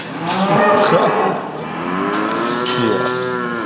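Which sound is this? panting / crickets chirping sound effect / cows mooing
cows mooing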